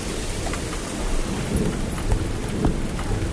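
Raindrops patter directly onto the buttons of a recorder left in a flowerpot in Madrid during the pandemic lockdown, a steady stream of irregular taps and thuds over a low rumbling wash, with no voices.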